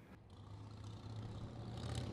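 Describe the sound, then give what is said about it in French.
Steady traffic on a brightly lit main city street rumbles with a low engine drone and broad road hiss, cars moving in all directions, swelling slightly. No voices, just continuous street noise. “La rue était très éclairée et malgré l'heure, plusieurs voitures circulaient dans tous les sens.”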